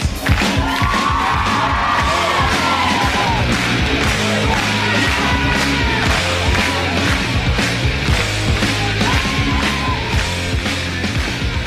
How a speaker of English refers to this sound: The clapping of the audience is also really stupid, oh. by the way. Ah, I hate that.